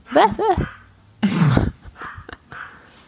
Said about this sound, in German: Aber den Hund hört man bellen, ne? Ich höre ihn.